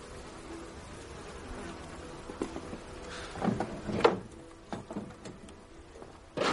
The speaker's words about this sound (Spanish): Otro día Agustín está trabajando con las abejas y observa a través de su escafandra a Adrián enfrente de él.